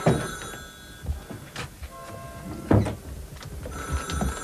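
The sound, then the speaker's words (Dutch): A telephone rings with a continuous metallic bell tone, moderately loud, over a rumbling background with a few scattered thuds and knocks. No one speaks. “Neem jij de telefoon maar even aan? Ik neem de telefoon wel.”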